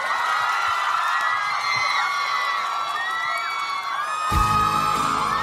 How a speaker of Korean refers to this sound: 자, 여러분 큰 박수로 환영해주세요. 영화 유열의 음악 앨범 주인공 배우 김고은 씨, 정혜인 씨, 그리고 정지우 감독님입니다.